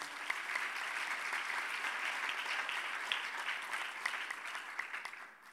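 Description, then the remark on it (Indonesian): An audience claps steadily for several seconds, a dense wash of many hands filling the room at moderate volume, tapering slightly at the end with no voices over it. “Mana tubuh tangannya?”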